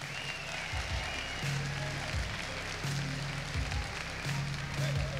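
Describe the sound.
Steady audience applause fills the whole stretch, a dense crackle of many hands clapping, with low murmuring voices and a humming tone faintly underneath.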